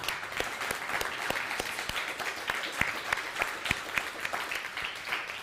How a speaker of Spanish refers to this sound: Saludos a todo Estados Unidos, un fuerte aplauso para todos Estados Unidos.